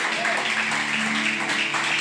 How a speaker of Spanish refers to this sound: Aleluya, aleluya. Dale un aplauso al rey.